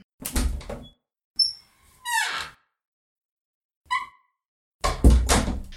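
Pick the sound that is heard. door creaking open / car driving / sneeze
door creaking open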